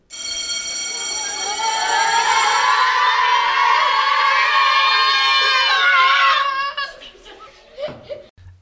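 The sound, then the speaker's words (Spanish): A loud electric school bell rings steadily for a couple of seconds, signalling the start of recess, then a crowd of children bursts into excited shouting and cheering that fades out, followed by brief laughter. “Esa emoción quedaba profunda y primitiva el timbre para salir al recreo.”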